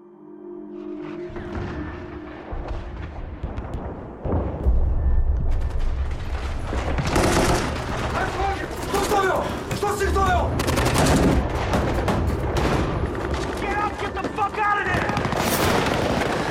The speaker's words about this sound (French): Bon, ça tire beaucoup dans ce, dans ce, dans ce trailer